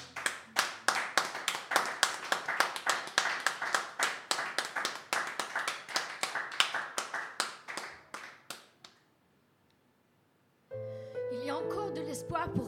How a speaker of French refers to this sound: qu'on peut l'applaudir pour l'encourager. Amen.